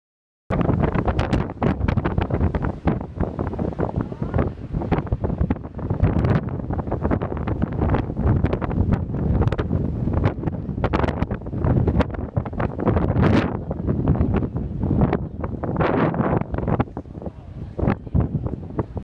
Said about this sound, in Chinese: 音频一：车站广场的大风。